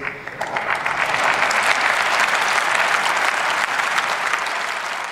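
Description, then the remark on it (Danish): Sustained applause in the German Bundestag for Olaf Scholz after he announced that Germany will deliver weapons to Ukraine, dense clapping at a steady loud level throughout, with no speech over it. “Olaf Scholz han øh, stod på mål for og også fik bifald for i den tyske forbundsdag.”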